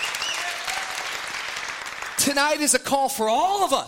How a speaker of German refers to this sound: somebody give him praise. Gib ihm mal einen, einen Applaus dafür.